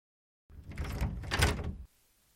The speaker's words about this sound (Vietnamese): Các cô mở cửa, đi ra phía hành lang ký túc.